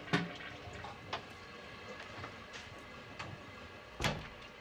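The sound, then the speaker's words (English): A shower runs in a film's shower scene, a steady hiss of falling water broken by a few sharp splashing knocks, a loud one at the start and another near the end, with no voices. “we're stopping in at the infamous shower scene from Psycho”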